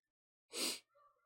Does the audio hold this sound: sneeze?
yes